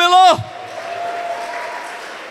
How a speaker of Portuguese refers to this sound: E se você crê nisso, aplauda Jesus bem alto e dê um brado de júbilo.